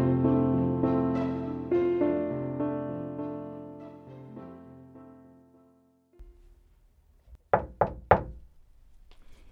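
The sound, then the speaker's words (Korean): Three quick, firm knocks on a daughter's bedroom door by her father, clear, with no response, following a stretch of music that fades out into near silence. “딸의 방을 노크했지만 반응이 없다.”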